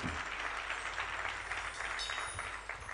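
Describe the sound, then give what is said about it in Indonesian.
An audience applauds for the name of God, many hands clapping together in a dense, continuous wash of sound at a fairly even loudness for the whole stretch, with no voices over it. “Tepuk tangan untuk nama Tuhan.”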